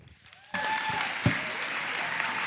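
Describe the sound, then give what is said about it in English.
A crowd bursts into applause for Pastor Scott Stewart after a brief quiet moment, steady dense clapping with a faint whistle or cheer rising briefly above it. “Would you please make a round of applause for Pastor Scott Stewart?”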